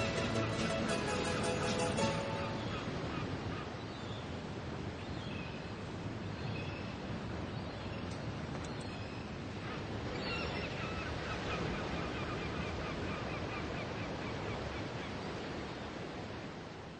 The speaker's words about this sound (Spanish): de repente se enfrenta a ese sonido, un sonido mágico que suena casi como un mantra. Es el ritmo de las olas.